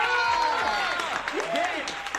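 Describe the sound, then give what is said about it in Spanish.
Steady applause fills the whole stretch, a dense crackle of many hands, while voices call out and whoop excitedly over it in rising and falling cries. “no, te aplaudimos un buen.”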